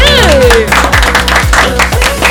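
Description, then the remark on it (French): Loud applause and clapping from a crowd welcoming a guest on a radio programme, mixed with a thumping music jingle with steady kick-drum beats and a sweeping tone at the start. “Mesdames, messieurs, un tonnerre d'applaudissements”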